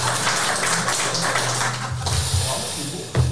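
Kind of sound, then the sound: crowd, applause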